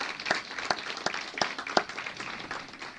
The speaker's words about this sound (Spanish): Yo quiero recibirlos, damos un aplauso de bienvenida a ellos. Bienvenidos.